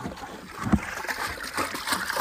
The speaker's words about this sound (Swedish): Det har varit lite vatten i, i mina inslag. Nu blir det lite mer här idag. Nu fyller vi dunkar här.